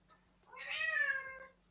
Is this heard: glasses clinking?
no